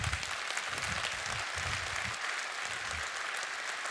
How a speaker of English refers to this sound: Yeah, I'm good being a Jesus freak. So in our Petrine ministry, go ahead, we clap for that one.